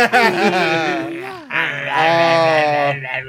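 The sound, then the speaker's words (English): A person imitates their sister's dog with two drawn-out, whiny vocal moans, the first falling in pitch and the second steadier, loud, with no actual words spoken. “I should imitate my sister's dog”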